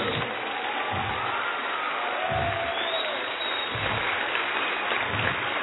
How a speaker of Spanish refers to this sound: No, no, déle un aplauso de enamorado a Dios.